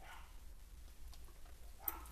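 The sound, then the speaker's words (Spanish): A dog barks twice, short, once at the start and again near the end, with a low steady hum in the background and no talking. “¿Sí o no, perrito?”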